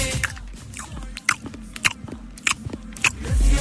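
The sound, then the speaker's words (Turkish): Wet lip smacking and chewing, an older man eating noisily while chatting, with repeated sticky smacks at an uneven rhythm, loud. “Ağzını şapırdatan bir dayıyla sohbet ediyordu.”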